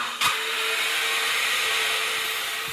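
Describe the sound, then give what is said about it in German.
A steady electric car motor whine with a thin sustained tone riding over a loud, even rushing noise, continuous for the whole stretch, with no voices. “so Pfeifgeräusche. Die können zum Beispiel vom Elektromotor kommen oder auch vom Getriebe.”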